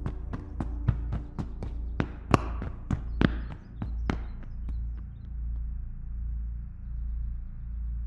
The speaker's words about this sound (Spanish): En eso, escuché unos pasos muy fuertes en la segunda planta, como si alguien estuviera corriendo.